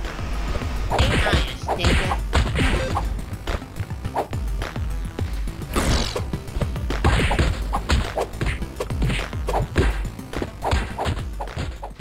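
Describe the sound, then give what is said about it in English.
Rapid video game fighting sounds from Space Jam: A New Legacy, a retro-inspired left-to-right beat 'em up for up to three players: a dense string of punchy whacks, thuds and whooshing swipes over driving background music, loud and continuous with no talking. “So, as you can see and potentially hear if you're listening to it on our podcast feed, this is a left to right beat 'em up that can be played for up to three players as Bugs Bunny, Lola Bunny, or LeBron James.”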